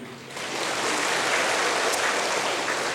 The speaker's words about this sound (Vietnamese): Suýt đúng rồi nhưng rồi cũng khá rồi đó, thôi cho vỗ tay đi